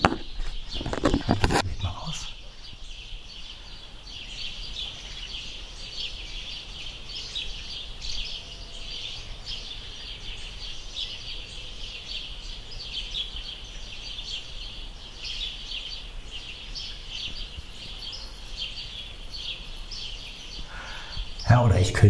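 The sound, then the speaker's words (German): Steady outdoor birdsong on a balcony, with many small birds chirping and twittering continuously over faint background hiss. A brief bump of handling noise comes at the start and end. “Aber jetzt hier noch ein bisschen Vogelgezwitscher bei euch.”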